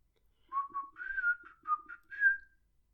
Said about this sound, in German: Erstmal war das schlecht gepfiffen. Und das wird man dann nicht gut drauf hören.